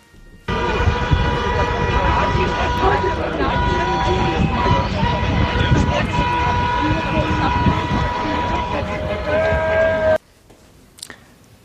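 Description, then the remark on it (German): A loud, dense chorus of car horns honks over and over as traffic streams past, overlapping blasts sustained for about ten seconds before cutting off abruptly, with background voices mixed in. “ähm, und also wirklich, die kamen hier vorbei und haben gehupt und gehupt und genau das wollen wir uns zum Abschluss auch gerne nochmal gönnen.”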